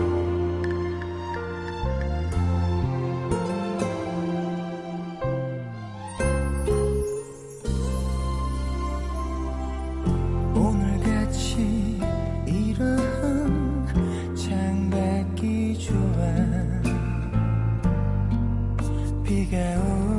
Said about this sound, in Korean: 네, 말을 좀 길게 드렸습니다. 음악 하나 더 듣고 올게요.